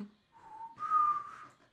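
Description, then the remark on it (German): A short whistled melody in a song, a few clear sustained notes rising slightly in pitch, moderately loud with a soft airy backing underneath. “Dieses Gepfeife in diesem Song macht mich wahnsinnig.”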